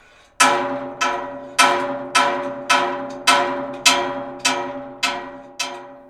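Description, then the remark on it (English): Loud metallic bangs on a metal cage, about ten in a steady rhythm, each leaving a bright ringing tone that fades before the next hit. No one speaks. “I moved around the cage, assuming that the change in distance and angle to the mic would create distinct sounds, aiming to combine them into a sound sculpture, and of course, some banging.”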